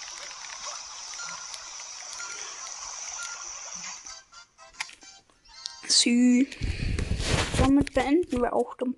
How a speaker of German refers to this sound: Und es ist so laut beim Wasserfall.